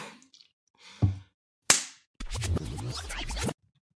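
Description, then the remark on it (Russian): A dull thump, then a sharp, crisp slap on a cheek, followed by about a second of loud rustling, scraping noise. No one speaks. “Сейчас должен последовать удар по щеке.”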